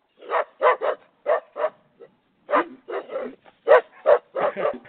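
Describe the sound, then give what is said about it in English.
A dog barks repeatedly in quick bursts, some doubled, with short pauses between clusters. It is loud, with no other sounds around it. This is a sound effect played by pressing a button on a soundboard. “you pulled out the cocaine who's a junkyard dog. So when you're on the board, you might have to press that button every once in a while.”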